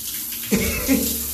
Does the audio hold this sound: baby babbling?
no